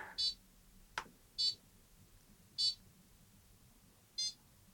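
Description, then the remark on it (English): Short electronic 'bing bong' beep tones, programmed to play from a circuit board, sound four times at uneven intervals, bright and fairly loud, with a brief click between the first two and a low background hum. “Now I want to be able to make it go bing bong, so let me just try upload that.”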